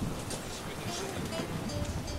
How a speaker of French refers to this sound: Je vous emmène sur l'océan, comme dans un rêve, pour un quart de nuit, soleil couchant, avec pour compagnie Moitessier, les vagues, le vent et l'océan.